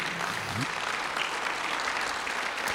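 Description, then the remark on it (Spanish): Steady applause from an audience, a dense even patter of many hands clapping at once, holding at a constant loudness throughout with a brief low tone near the start. “Alguien aplauda, por favor, ya estoy terminando.”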